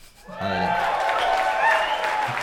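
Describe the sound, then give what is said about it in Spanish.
A short burst of applause played as a sound effect, dense steady clapping from a small crowd that swells in quickly and holds for a couple of seconds, with a faint low tone at the start. “Te voy a poner un aplauso aunque no te lo mereces.”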